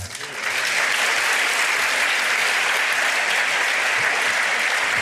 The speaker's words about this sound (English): But now, give a warm welcome, a big applause for my great panel. Welcome.